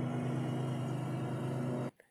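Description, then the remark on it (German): A ride-on lawnmower engine drones steadily with a low, buzzing hum, then cuts off abruptly near the end as its operator switches it off, leaving quiet except for a faint clunk. “Hat jetzt seinen Rasenmäher abgestellt.”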